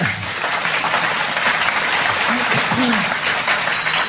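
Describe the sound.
A crowd of ladies and gentlemen applauds steadily for an introduced guest, a dense, even patter of many hands clapping throughout, with a few faint voices rising briefly beneath the applause.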